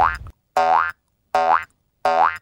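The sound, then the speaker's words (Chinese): Four springy cartoon boing sounds of a little frog hopping onward, in a steady hopping rhythm, each a bright, twangy tone that rises in pitch, separated by short silences, with no voices. “再次被拒绝的小青蛙很伤心，但是 因为他实在太想要找到唱歌的伙伴了，所以他离开了树下，又继续往前跳。”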